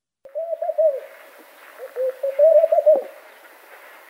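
bird, turtle dove cooing

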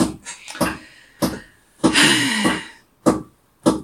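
tool, hammering

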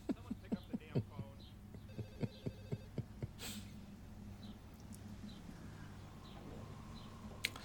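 signal or alarm, telephone ringing

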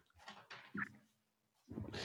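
animal, dog barking excitedly

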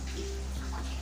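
nature, light rain drizzle

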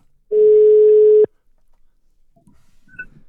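signal or alarm, telephone ringing tone

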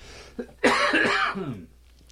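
human body sound, coughing

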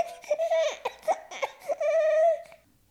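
human body sound, baby crying

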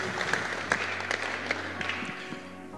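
crowd, audience applause

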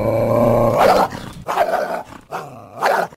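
animal, dog growling

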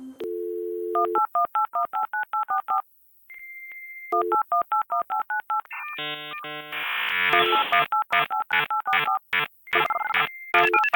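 signal or alarm, telephone keypad dialing tones

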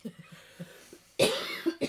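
human body sound, cough

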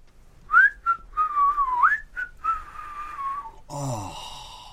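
human body sound, person whistling a tune

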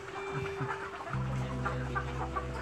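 bird, chickens clucking

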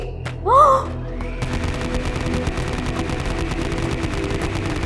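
sound effect, gunshots

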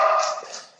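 animal, dog barking and whimpering

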